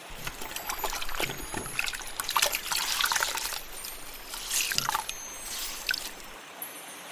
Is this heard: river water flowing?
yes